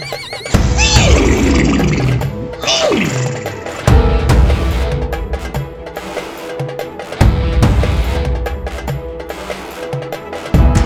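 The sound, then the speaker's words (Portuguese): A horse whinnies loudly twice in quick succession as it runs toward someone, each call a shrill, quavering cry sliding downward in pitch, over a dense, noisy background that continues after the neighs fade. “Cavalo corre em direção a Ricardo. Ricardo se apoia no cavalo.”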